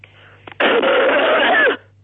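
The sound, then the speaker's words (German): A single forced cough, loud, from a man ill with a cough and a slight cold, with a brief catch of breath just before it. It has a long, raspy tail and plays over a faint steady low hum, with no talking. “Hust mal.”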